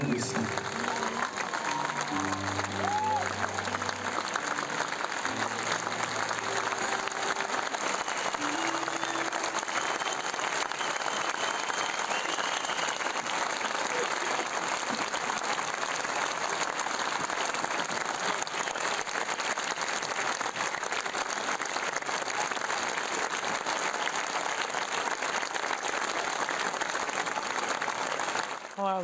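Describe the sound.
A large concert crowd claps continuously and densely for Leah and Simcha Goldin, parents of Lt. Hadar Goldin held captive by Hamas, a steady roar of applause that neither swells nor fades, with faint musical tones and voices underneath at the start.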